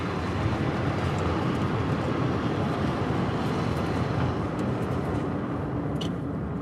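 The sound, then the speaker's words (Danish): A tram rumbles along the street, a loud, steady roar of wheels on rails that fills the whole stretch, with faint high squeals near the end and no voices. “Og der kom sporvognen.”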